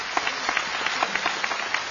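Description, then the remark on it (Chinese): An audience at a stage performance applauds steadily for the full two seconds, a dense, even patter of many hands with sharper individual claps popping out at a fairly regular pace, applauding again for an elderly performing artist. No voices are heard. “那么在这里真的应该把掌声再次送给贾先生”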